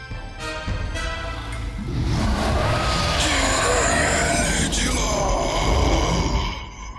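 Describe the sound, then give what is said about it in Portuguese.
A loud, gravelly dragon roar rumbles for about seven seconds, swelling with growling, rising tones before cutting off abruptly, with no one talking over it. “Um rugido de dragão.”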